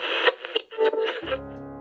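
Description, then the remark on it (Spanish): A mobile phone alarm goes off at six-thirty in the evening, a steady buzzy electronic tone holding for about half a second, right after a short burst of choppy, muffled sound. “Me sonó la alarma del celular.”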